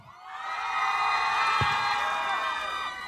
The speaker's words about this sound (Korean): 오늘 솔직히 이분들 보러 많이 오셨습니다. 네, 많이 오셨는데요. 여러분 뜨거운 함성으로 맞아주십시오.